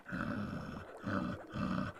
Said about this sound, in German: Ich muss nämlich immer so aufstoßen bei diesem Zauber.